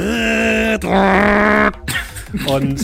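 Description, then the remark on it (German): A loud voice imitates rapid autocannon fire hitting a drone: a sustained rattling, buzzing growl in bursts, broken by a harsh noisy crash near the middle and a final stuttering burst. “wie eine Maschinenkanone in eure Drohne ein, äh, einschlägt und die so langsam, aber bestimmt brennend in Richtung Elbe hinunterfällt.”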